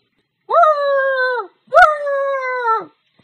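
A nervous, trembling dog lets out two long, whimpering howls in a row, each wavering slightly and trailing off, with a short gap between them. Fairly loud, with no talking.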